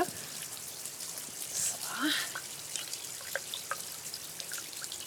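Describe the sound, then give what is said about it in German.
Water trickles and drips steadily from a small built fountain in front of a hotel, fed by spring water running down from the hotel, with scattered splashes over a soft, continuous background wash and faint voices. “Also es ist ein kleiner Brunnen, den wir gebaut haben.”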